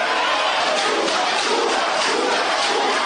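A large crowd of youth supporters sings pro-Zuma political songs together shortly after Gordhan took to the podium, a loud, dense wall of massed voices that stays steady throughout, with no single voice standing out.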